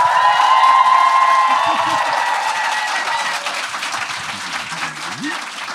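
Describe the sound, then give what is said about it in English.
A crowd at a live show in Copenhagen bursts into loud, sustained applause with cheering and a high whistle at the start as a guest is welcomed to the stage, the clapping holding steady and dense before easing slightly toward the end. “So please make some noise and welcome to the stage”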